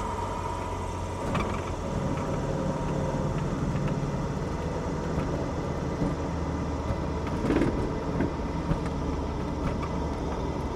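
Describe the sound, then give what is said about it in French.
A light aircraft engine idles with a steady, low drone that holds evenly throughout as the plane covers the final metres toward the runway while landing, with a couple of brief rattles partway through and no voices. “Allez, les derniers mètres, la piste se rapproche et on entend que le moteur Quasiment silencieux.”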